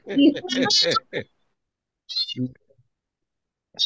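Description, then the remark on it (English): A person imitates a cat's meow, giving a drawn-out, wavering vocal cry that trails off, followed by a pause and a couple of short voiced sounds. “And when you, it's when you get to the yawn part. Meow.”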